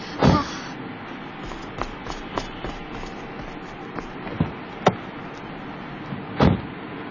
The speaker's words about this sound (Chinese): 哎呦，坐好了啊，我关门了。